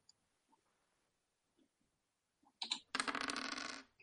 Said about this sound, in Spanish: Vale, pues haz una tirada eh, de dos dados de 10 y sumas el resultado.